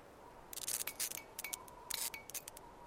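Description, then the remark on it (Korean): Electric crackling buzz of a streetlamp in the dark, its light flickering: irregular bursts of sharp, sizzling static sputter on and off over a faint steady hum, fairly quiet, with no voices. “지지직 지지직 소리가 들리더니 불빛이 깜빡였다.”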